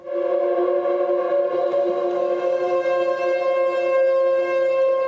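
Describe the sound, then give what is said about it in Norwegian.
Two ordinary chairs dragged by dancers along the floor of Emanuel Vigeland's mausoleum in Oslo during a performance, blurring into a steady, layered drone of sustained pitched tones that sounds almost like a horn ensemble, holding unbroken and fairly loud for several seconds with no voices. “Lyden du hører nå, er stoler dradd langs gulvet i mausoleet til Emanuel Vigeland.”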